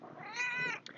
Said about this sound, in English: Now, I know you guys can hear my cat who's next to me.